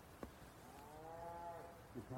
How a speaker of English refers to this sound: There's also cows nearby